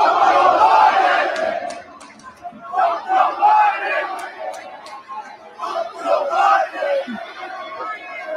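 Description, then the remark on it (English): A large crowd of young Americans chants in loud, rhythmic bursts as President Trump arrives at a sneaker event, the shouted phrases rising and falling in repeated waves with a dense roar of voices underneath. “President Trump arrives at sneaker crown to young Americans chanting LGB”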